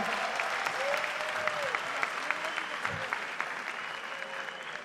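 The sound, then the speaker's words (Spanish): A crowd applauds and cheers loudly and steadily, dense clapping mixed with shouts and whistles filling the space for several seconds. “Hermanos, hermanos, hey, quiero que demos una fuerte bulla, por favor.”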